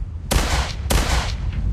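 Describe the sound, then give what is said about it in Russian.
Two sharp shots from an electromagnetic pistol with a platinum body ring out about half a second apart, fired toward the horizon, each a loud crack followed by a short echoing tail, with no voices. “Скептик дважды выстрелил вдаль, затем быстро нацелил пистолет себе на ногу,”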